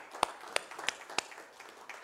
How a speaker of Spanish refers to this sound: un aplauso a ese Dios maravilloso.